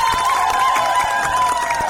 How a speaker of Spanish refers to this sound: Nuestra querida Silvito. Un fuerte aplauso.